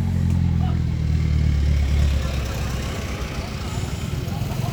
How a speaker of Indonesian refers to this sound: ntar ya ada jeep lewat guys